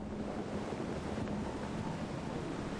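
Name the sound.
atlantic ocean surf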